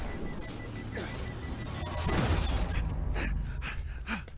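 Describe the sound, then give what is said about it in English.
A cutter boat slams into a racer's Cyclone RC vessel amid a dense, rumbling wash of noise that swells midway, with a few sharp gasps from a voice breaking through. “So, I kind of crashed my cutter.”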